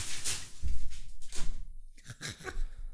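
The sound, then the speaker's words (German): A woman pulls a door shut amid a few scattered knocks and rustling clatter, moderately loud, with no one speaking. “Da macht sie die Tür zu.”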